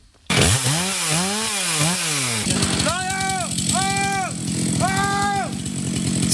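A chainsaw drones loudly and steadily as a colleague cuts wood a little way off during a forestry accident-rescue exercise; its rough engine buzz fills the whole clip while a man shouts several drawn-out calls to him over the noise.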